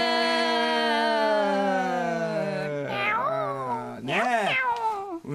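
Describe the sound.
A person imitates a cat meowing, with a long drawn-out yowl followed by two shorter, rising-and-falling meows, loud with no other talk.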